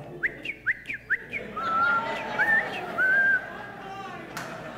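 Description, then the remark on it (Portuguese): A person whistles in imitation of birdsong: three quick rising chirps, then longer sliding and steady whistled notes, clear over a soft, murmuring background. “O tempo de cantar chegou, meu irmão.”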